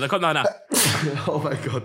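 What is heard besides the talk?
sneeze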